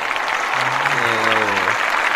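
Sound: applause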